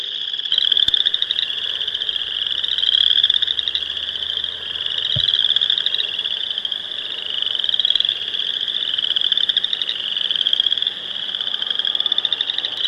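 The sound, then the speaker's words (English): A frog calls in a steady series of rasping, ratchety croaks, like a stick scraped along the ridged back of a wooden frog toy. The calls repeat without pause, loud, with no voices. “Did you ever have one of those toys where you like ran the um, little peg over the back of a frog that was like all yes.”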